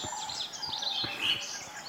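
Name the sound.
song thrush singing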